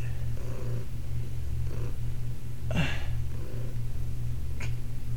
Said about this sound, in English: hear anything that sounds like a motor, it's Cuddles purring because I can see that it picks it up at some points.